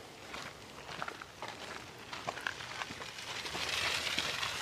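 Quiet footsteps of a person walking, soft irregular crunching steps at an easy pace over a steady hiss of background noise, with no voices.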